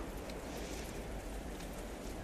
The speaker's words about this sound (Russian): И вот это все сгущалось, сгущалось, плюс ветер очень сильный, плюс э, пошел дождь, потом град, потом... И вот слышите, вот это вот то, что вы слышите, это шуршание снега, который сыплется сверху